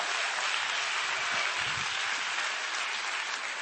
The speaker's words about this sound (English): Give the Lord a hand clap. Give the Lord a hand clap.